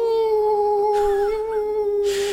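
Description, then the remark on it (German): A person imitates a werewolf howling, holding one long, steady, fairly loud note with little change in pitch throughout, with no other talking. “Das heißt, er hat halt die, die Wolf-Gene in sich äh, oder die Werwolf-Gene, was auch immer, aktiviert und hat einfach angefangen, richtig zu heulen. So, au!”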